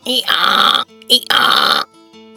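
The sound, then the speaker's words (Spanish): Someone imitates a donkey's bray: two loud, drawn-out, raspy hee-haw calls, each lasting under a second, with a brief pause between them and nothing else underneath. “Muchas gracias, señor burro, dijo la ratita muy orgullosa. ¿Te quieres casar conmigo? Depende. ¿Qué sonido harás por las noches? Haré...”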